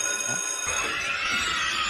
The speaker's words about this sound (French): oui, une sonnerie de cours d'école et des cris d'enfants, car ce n'est pas que la présidente de l'Assemblée nationale qu'on reçoit ce matin